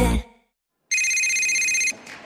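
A telephone rings once in a sustained, bright electronic tone lasting about a second, loud, after a brief burst of noise and a short silence; no one speaks.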